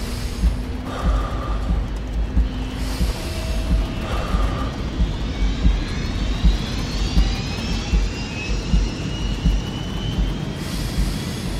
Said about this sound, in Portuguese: Boa noite, bem-vindos a bordo do voo 131 da TAP com destino a Faro. O avião vai descolar dentro de momentos. Agradecemos que apertem os cintos de segurança.